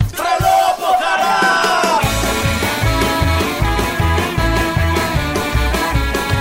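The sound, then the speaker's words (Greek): A whole village crowd welcoming Mr. Tsipras shouts loudly together, their voices rising into a sustained chant over a steady, pounding low beat that starts a couple of seconds in and keeps a regular rhythm. “Φωνάζει το χωριό.”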